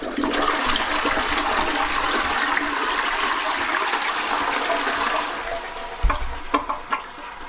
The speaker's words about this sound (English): Yeah, it was it was a toilet flushing. Sometimes you can't hear it always. It sounds like something else.